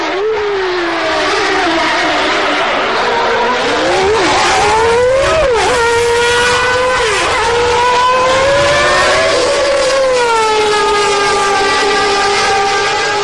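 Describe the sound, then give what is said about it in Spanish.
Loud, high-pitched scream of old V8, V10 and V12 Formula 1 engines revving, continuous, with the pitch dipping and climbing again at several gear changes. No voices are heard. “Bueno, ya sabéis que no es, eh, no es el sonido original de las actuales monoplazas de Fórmula 1, pero siempre estará en nuestro corazoncito este sonido.”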